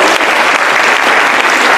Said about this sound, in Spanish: ¿quiénes son invitados? ¿Quién viene por primera vez? Ok, un fuertísimo aplauso para todos ustedes.